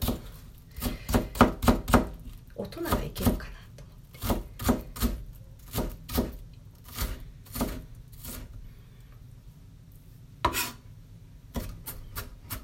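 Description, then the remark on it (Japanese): A knife mincing one onion on a cutting board: crisp taps in quick, uneven bursts with short pauses between them, and a brief quiet voice at one point. “玉ねぎのみじん切り”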